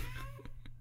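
A cat meows briefly, a short tonal cry with a few soft clicks and thumps, over a steady low hum.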